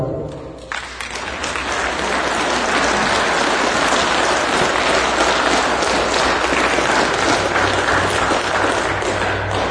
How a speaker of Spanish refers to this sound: Quisiera pues en estos momentos pedir un aplauso para nuestro Divino Padre Jehová.